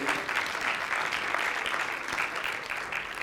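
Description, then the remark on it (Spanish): An audience applauds steadily, a dense, sustained wash of many hands clapping at an even loudness for the whole stretch, with no voices standing out above it. “Damos un aplauso.”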